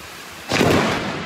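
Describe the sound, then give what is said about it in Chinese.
A steady hiss of heavy rain during a storm in Japan, then a sudden loud crack of thunder halfway through that swells into a broad, roaring rumble and holds to the end. “雷鸣闪电划破天际，位于关东的群马和铃木县五号因此一度传出小规模停电。”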